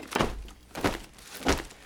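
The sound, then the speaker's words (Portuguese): Choir robes that had been hanging in a basement thrown onto the floor: three soft, muffled thumps with a brief rustle of fabric, each landing about two-thirds of a second apart, with quiet pauses between them. “Vamos jogá las no chão para mostrar ao pastor como a gente se sente.”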